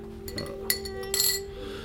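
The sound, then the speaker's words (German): A spoon clinks repeatedly against the inside of a glass as a heavy man stirs a cloudy slimming powder into water at a table in an empty pub: a quick series of light, bright taps, with a steady low hum underneath and no talking. “saß allein am Stammtisch und war daran, ein trübes Pulver in ein Glas zu rühren.”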